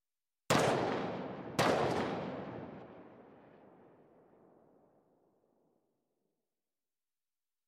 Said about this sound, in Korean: 곧바로 두 발의 총성이 더 울렸고 소녀는 자신이 멈춘지도 모른 채 소리를 질렀다.